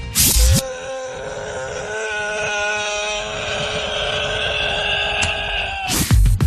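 A long, sustained moan held for about five seconds at a steady, fairly high pitch, with short bursts of noise just before it starts and right after it ends.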